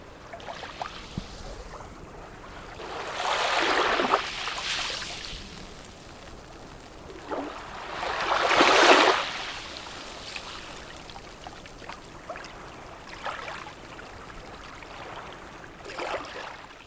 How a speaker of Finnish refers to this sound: tulee tämmöiselle matalalle hiekkarannalle. Ja vesi tulee ylös ja vetäytyy alas ja ihan kuin pienet pienet hiekanjyvät pyörissä siinä rantaviivassa